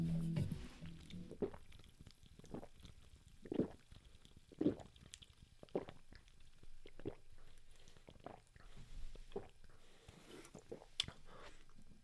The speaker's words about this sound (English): Because, um, as we know here at the More On Voice Audio Show, in times like this, we have a drink of seltzer water.